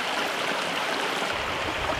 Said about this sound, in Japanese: 今朝は川底から温泉が湧き出す秘湯のいい音群馬県尻焼温泉